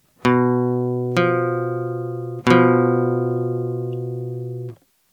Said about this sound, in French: Par exemple, il sera très rare d'entendre l'intervalle de quinte diminuée dans la pop. Voici ce qu'est un intervalle de quinte diminuée.